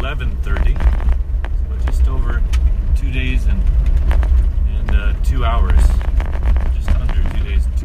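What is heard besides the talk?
car road noise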